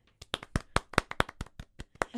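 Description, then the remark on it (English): A quick run of about a dozen sharp hand claps over roughly two seconds, crisp and slightly uneven in rhythm, with no talking. “Maybe progress for both of us. Let's clap.”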